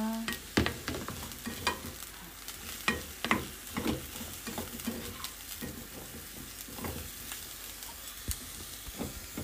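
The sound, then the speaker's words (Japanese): Food sizzles steadily in a pan while a utensil stirs and scrapes, with irregular clinks and taps against the cookware, moderately loud, with no talking, as a bento lunch is being made. “お弁当を作りながら”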